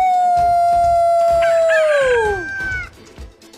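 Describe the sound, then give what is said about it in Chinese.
A rooster crows once in a long, drawn-out call that holds a steady high pitch and slides downward at the end, loud over a soft rhythmic background. “在喔喔喔的啼鸣声中，蛇怪开始膨胀，膨胀，膨胀，它越来越大，越来越大。”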